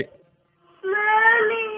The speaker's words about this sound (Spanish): Eh, eh, está llorando el niño.